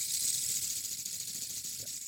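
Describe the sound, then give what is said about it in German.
A ball bearing, set spinning with one push, turns for a long time, giving off a continuous high, airy whirr with a faint rattling grain. It holds fairly constant in level throughout, with no voices. “Ich, hör, ich höre das Kugellager im Hintergrund.”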